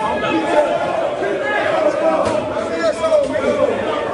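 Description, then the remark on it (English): Michigan and Michigan State football players shout and yell over one another while fighting in the tunnel at Michigan Stadium, Ann Arbor, immediately after the game, an echoing, chaotic, steady jumble of raised voices and scuffling commotion with no clear words standing out. “That is the sound of Michigan's … and … trying to fight off Michigan State's …, …, …, and … in the tunnel at Michigan Stadium immediately after the game.”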